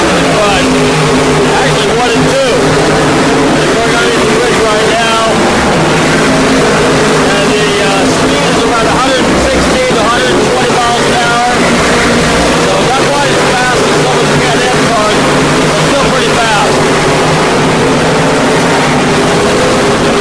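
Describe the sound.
Historic Trans Am race cars roar around a turn, a dense, continuous engine drone with steady low humming tones that persists throughout, with indistinct voices mixed underneath.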